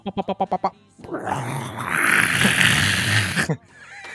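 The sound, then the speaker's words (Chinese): After a quick run of six short, rhythmic vocal bursts, a voice makes a long, loud, breathy rushing noise lasting over two seconds, imitating water gushing like a spring, like the water of the Zhuoshui River rushing in, with a little chatter following. “你有没有觉得很像是那个浊水溪的水冲过来的感觉？”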